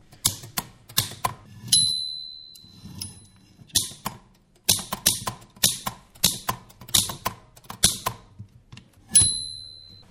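A small manual typewriter clacks in bursts of sharp key strikes, with a few ringing bell dings and carriage sounds between runs, no voices present.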